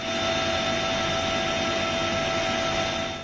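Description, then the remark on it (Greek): A Super Puma rescue helicopter drones overhead as rescuers hoist up an elderly woman and a young woman trapped by floodwaters, a loud, steady roar with a constant high turbine whine running through the whole stretch and no voices. “διασώστε τραβούν πάνω στο Σούπερ Πούμα μια ηλικιωμένη και μια νεαρή που έπρεπε να απεγκλωβιστούν άμεσα από το σημείο.”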